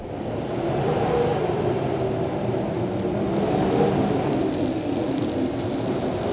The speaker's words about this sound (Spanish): Había tormenta y la ventana se había abierto de par en par por el fuerte vendaval.